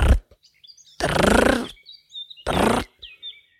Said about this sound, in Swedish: Då hörde de ett litet konstigt ljud. Det var en supersnabb ekorre som sprang fram och tillbaks i träden.